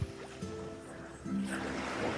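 Water sloshing and lapping in a steady wash, with a low hum running underneath, as if from a small boat or shoreline.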